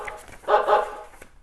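The puppy Biscuit, from the children's story Biscuit Goes to School, barks twice in quick succession as the school bus arrives, two short, bright yaps of moderate loudness with no talking around them.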